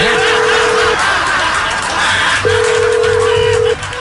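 Two long, steady electronic telephone tones as a phone call is dialled, each over a second, separated by a short pause, sounding loudly over a dense, busy background hiss and rumble.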